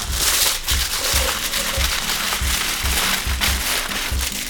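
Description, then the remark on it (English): Aluminum foil, a piece about double the length of a paper towel roll, crinkles and rustles continuously as it is rolled up to make a homemade rain stick, a steady crackling texture with soft rhythmic thumps underneath and no talking. “And now what I'm gonna do is I'm gonna roll it up.”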